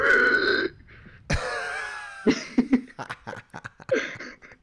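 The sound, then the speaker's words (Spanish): A person vocally mimics a squeaky pig toy with a string of strained, high, squealing and grunting noises, some drawn out and others short and choppy, loud with no talking. “yo te imaginé como uno de esos cerdos de que venía o por ahí por los centros de, de comercio de callejeros.”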